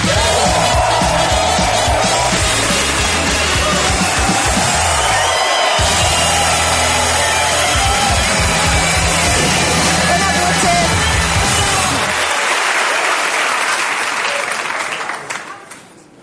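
A loud, sustained burst of audience applause with scattered cheers and whoops, dense clapping continuing for about fifteen seconds before quickly fading out.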